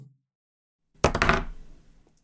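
A die tumbles across a table: a quick burst of several sharp, clattering knocks that rattle for a moment and then settle into quiet. No voices are heard.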